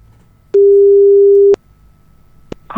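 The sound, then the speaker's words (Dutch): A phone line rings once on an outgoing call to the phone number of Mark Higgins: a steady one-second electronic tone, then quiet, a click, and the start of a recorded voice. “Inmiddels heb ik ook het telefoonnummer van deze Mark Higgins achterhaald”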